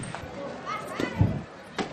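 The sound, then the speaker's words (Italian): Children play football outdoors in the street, their voices mixing with a few dull thumps like a ball being kicked or bounced, over a steady background of open-air ambience. “Per strada si gioca a pallone.”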